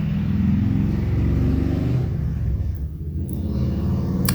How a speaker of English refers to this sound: Hang on, car.